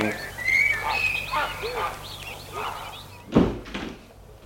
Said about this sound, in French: Il sort de voiture, monte le perron et va sonner à la porte. La porte s'ouvre.